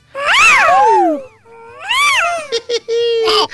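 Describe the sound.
A voice lets out high-pitched, swooping cries imitating a pop singer's signature scream: two long wailing yelps that rise and fall, then a quick run of shorter, clipped squeals, loud and unaccompanied.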